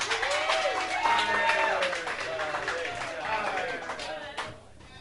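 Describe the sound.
An audience breaks into steady applause lasting about five seconds, dense overlapping claps mixed with scattered cheers and voices, fading slightly at the end.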